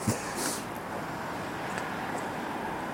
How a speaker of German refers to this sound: Aber krass, wie laut die Autos sind, oder? Ja. Dafür, dass die Straße so ganz schön weit weg ist von hier